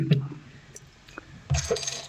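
A very strong, barrel-aged Belgian quintuple-style beer being poured into glasses: a couple of light glass clinks, a short pause, then a steady, fairly loud splashing pour with bright fizz that runs to the end.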